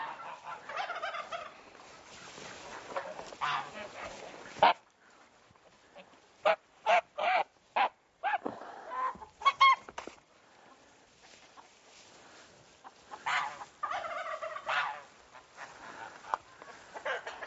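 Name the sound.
geese honking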